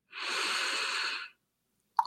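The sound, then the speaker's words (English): A single long, deep breath drawn in through the nose during a counting breathing exercise, a steady airy hiss lasting about a second, clear, followed by silence and a faint click. “It would go something like this breathing in”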